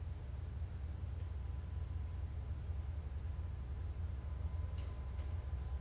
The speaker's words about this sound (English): I hear a train. Is it Thomas? Is it Thomas the train?